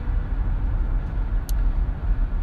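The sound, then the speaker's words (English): Steady low rumble of a car driving along an old highway lined with stores, shops, car lots and car repair places, a continuous drone of engine and tire noise with no voices, plus one brief faint click partway through. “it's like an old highway, the old highway.”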